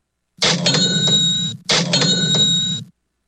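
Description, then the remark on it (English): A cash register sound effect rings out twice in quick succession, each burst a loud mechanical clatter with a bright bell-like chime, clear with no voices. “that cheap catch register sound effect means it's time for Florida Cash homebuyers cashing”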